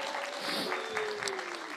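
A steady wash of applause from a group for its small group leaders, many hands clapping densely at an even moderate level for a couple of seconds, with no voices standing out.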